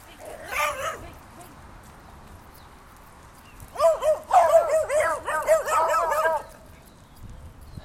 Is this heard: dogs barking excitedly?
yes